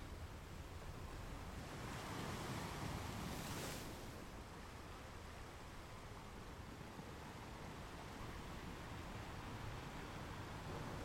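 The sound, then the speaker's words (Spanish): Steady ocean surf washes continuously onto a shore, a broad rushing roar with one fuller wave swelling early on, then settling into an even, unbroken wash with a touch of wind. “Observa este movimiento que tienen las olas del mar.”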